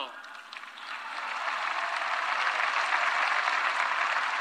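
A crowd in the Zócalo in Mexico bursts into applause for migrants' remittances during the president's speech, dense clapping that builds over the first second and a half and then holds steady and loud, a broad wash of many hands with no voices on top.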